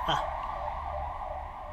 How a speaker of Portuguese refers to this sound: Passa a ambulância, passa lá